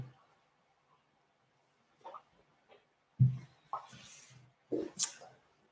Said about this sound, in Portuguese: Enquanto isso, vou beber água, que isto aqui também é preciso.